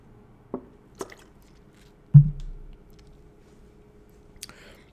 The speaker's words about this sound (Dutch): Neem nog even een slokje water.